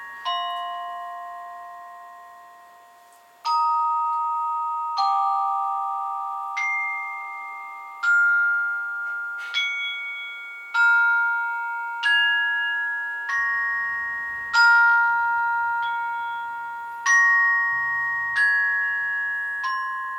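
Delicate, glassy percussion music played by a percussionist: bright struck bell-like notes ring out one at a time every second or two, each sustaining and overlapping the next in a slow, shimmering texture, with no voices.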